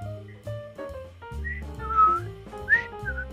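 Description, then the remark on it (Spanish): Someone whistles a short, bouncy tune in clear, pure notes, with a few brighter high swoops, over a steady low accompaniment. No one speaks. “No voy a silbar mientras piensas”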